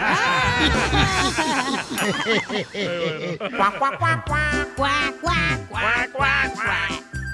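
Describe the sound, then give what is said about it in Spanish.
A duck quacking sound effect: a dense run of nasal, warbling quacks, then a rhythmic string of sharp repeated quacks over a steady thumping low beat, loud throughout. “Cuac, cuac, cuac, cuac, cuac, cuac, cuac, DJ!”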